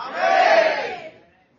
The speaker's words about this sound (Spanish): Pues, que lo quiera, grite amén.